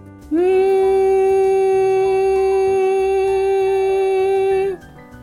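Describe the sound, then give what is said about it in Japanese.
A single steady hummed note held at a comfortable mid pitch for about four and a half seconds, close and fairly loud, then stopping abruptly. “まずはハミングをした状態で少し長めにこの音を出していきます。このような感じです。”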